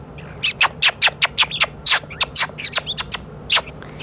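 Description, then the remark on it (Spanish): A Galápagos mockingbird (cucube) sings, a loud, rapid string of about fifteen sharp, harsh chirping notes repeated in a steady rhythm, with no voices and only faint background hiss. “Anda un cucube por ahí, tac, tac, tac, tac, y después ya el sonido, la canción en sí, cuando él ya se acerca.”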